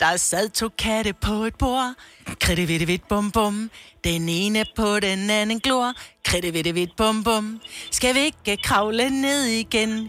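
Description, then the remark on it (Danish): A single voice sings the Danish children's song 'Der sad to katte på et bord', a bouncy melody in short phrases with the repeating nonsense refrain 'kritte vidt vidt bum bum'. A faint low hum joins near the end. “Stjernerne må ved beklagelse meddele, at du har fået den der sang på hjernen, der lyder sådan her.”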